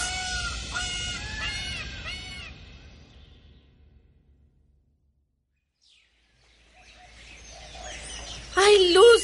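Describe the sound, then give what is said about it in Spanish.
A peacock lets out a run of loud, wailing cries that trail off into silence as it flies away, followed later by rustling noise and one more sharp cry. “Venía a bailar conmigo y pedí muy fuerte y muy claro, volá, pavo real, volá muy lejos y recibí el castigo que mereces por tus falsedades.”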